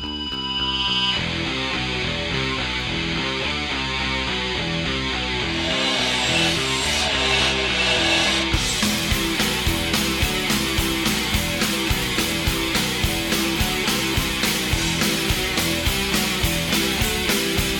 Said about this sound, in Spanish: Eh, el riff de la guitarra, no el bajo, porque el bajo es muy punk, pero siento que la guitarra es muy death metal